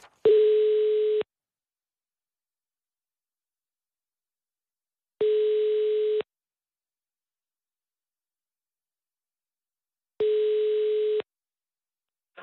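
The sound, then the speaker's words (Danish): A telephone ringing tone repeats three times: steady, mid-pitched buzzy beeps about a second long, separated by roughly four seconds of silence, as a call is placed to the communications chief at Justitsministeriet (the Ministry of Justice). No voices are heard. “Jeg ringer du bare ham op.”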